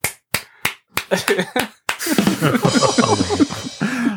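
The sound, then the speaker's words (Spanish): A handful of sharp, separate claps at an uneven pace, then a swell into sustained, loud clapping mixed with crowd voices that carries on to the end. “tú sabes que ese se murió entre aplausos, ¿no?”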